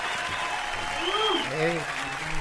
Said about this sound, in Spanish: Mira cuántos aplausos.